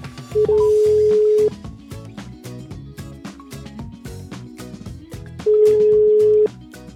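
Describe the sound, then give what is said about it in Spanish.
A telephone line tone sounds twice as a live call is placed to a prize winner, each a steady one-second hum separated by a long pause, playing over a busy, rhythmic music bed with no voices. “Y la vamos a llamar en vivo para decirle que se ganó la estadía.”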